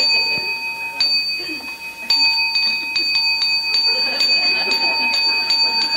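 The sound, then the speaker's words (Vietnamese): A mindfulness bell is struck several times at irregular intervals. Each strike rings out clear with a long, sustained tone that overlaps the next, over faint background murmur. “phải chi mà mình nói lâu lâu mình điểm một tiếng như vậy mình dặn nó nghe chuông là lại nghe không”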